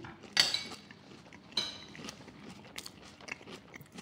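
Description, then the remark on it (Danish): Crunchy food is bitten and chewed, with sharp crackling bursts followed by softer, irregular crunching and a faint clink of utensils in the background. “Det knaser lidt, det kan jeg godt lide.”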